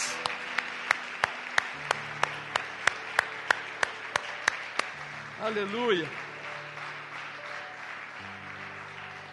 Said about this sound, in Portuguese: E uma vez que estende de pé, outra vez dê um aplauso a Jesus Cristo, ele merece todo aplauso e mais.